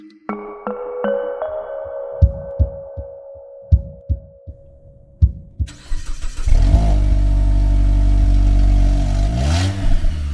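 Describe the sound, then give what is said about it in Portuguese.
A few soft chimes and dull thumps, then a brand-new car's engine starts with a loud roar with the key in the ignition. It idles heavily and revs up as the car pulls away from a dealership near the end. “Chave na ignição, pé no acelerador e um carro novinho em folha a sair de um stand.”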